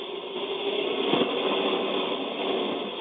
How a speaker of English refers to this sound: All right, coming through right now is JT Taylor in that uh, 4400 car.